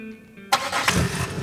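car engine starting

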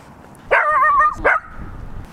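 dog barking

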